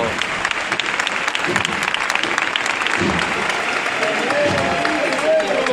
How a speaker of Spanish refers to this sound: Y este es el aplauso.